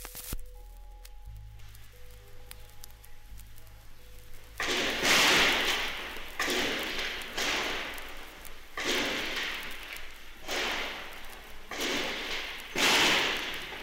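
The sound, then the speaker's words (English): After a few seconds of low electrical hum, a series of loud, sharp gunshots rings out about every second, each blast echoing and decaying, recorded on a reel left running in the PBS station offices during an attack on the station. “Um, it's a few minutes long and it's just the sound of gunfire in the station offices.”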